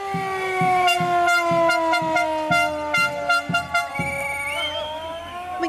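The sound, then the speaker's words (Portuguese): Sirens of the Ponta Delgada fire station in the Azores, sounded on a Saturday morning during a firefighters' protest for better pay, blare together in loud, sustained, harmonically rich tones that slowly slide lower in pitch, over a faint rhythmic thudding. No one speaks. “Neste sábado soam as sirenes do quartel de bombeiros de Ponta Delgada, mas desta vez a emergência são os próprios soldados da paz.”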